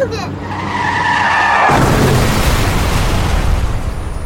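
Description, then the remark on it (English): Tires screech in a loud, sustained skid for over a second, then a sudden heavy crash gives way to a broad, rumbling roar of impact noise and debris that fills the rest. “Car crashes are a leading killer of children 1 to 13.”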